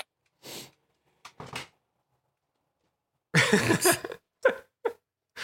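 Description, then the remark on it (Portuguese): A door being opened to let a dog in: a few short clunks and rustling bursts separated by pauses, then a louder cluster of handling noise near the end, with no talking. “Me dei só um minutinho que eu preciso abrir a porta para cachorro aqui, já volto.”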